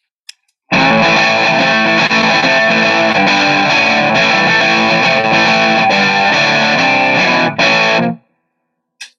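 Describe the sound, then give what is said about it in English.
An electric guitar played through a Top Boost amp model: about seven seconds of loud, bright, lightly driven chords ringing together, with small clicks before and after and no talking. “And then you get the top boost.”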